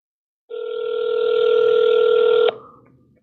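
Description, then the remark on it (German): A single long ringback tone from an outgoing phone call to Florida, steady and fairly loud for about two seconds, then it cuts off abruptly. No one answers and no voices are heard. “Bitte heb ab”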